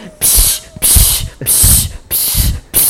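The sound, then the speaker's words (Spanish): Someone imitates an aerosol insecticide spray with their voice: five loud hissing bursts in a steady rhythm, each a short psst about half a second long. “y sientas cómo te va cayendo el insecto. Así en la cara.”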